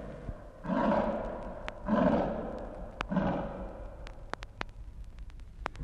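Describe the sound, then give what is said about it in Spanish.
Three deep, rumbling tiger roars in steady succession, each swelling and fading over about a second, followed by scattered sharp clicks against a low background hum. “Ya que tengo poder ilimitado, voy a causar un tigre.”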